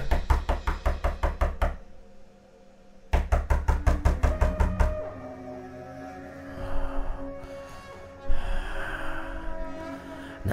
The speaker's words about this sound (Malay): Pintu bilik saya ni diketuk berkali-kali.